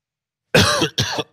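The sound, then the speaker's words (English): Two quick coughs in succession after a moment of silence, loud and raspy with a broad, noisy texture, from a person coughing just after an interview ended. “I had to wait for the interview to be over before I coughed.”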